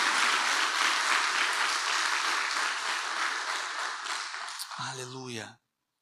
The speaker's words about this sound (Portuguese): Dá uma salva de palmas então, né? Se você crê realmente.